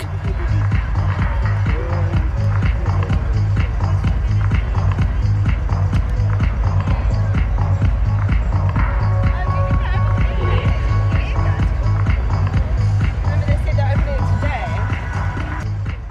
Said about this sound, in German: Der Beat kommt aus der Ferne. Ein Stampfen, ein tiefer Bass, Psychedelic Trance Music.